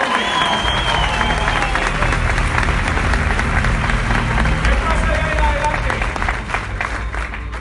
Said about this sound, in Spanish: Démosle un aplauso bien grande a este